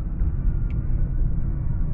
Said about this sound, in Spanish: A la madre, ¿qué le pasa a ese carro? es que voy manejando.